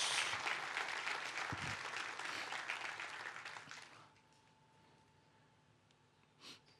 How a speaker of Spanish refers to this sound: den un fuerte, pero un fuerte aplauso a Dios.